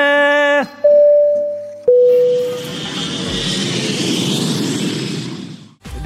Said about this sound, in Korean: 자, 그러면 우리 비행기 인도로 이륙합니다. 갑니다. Let's get it!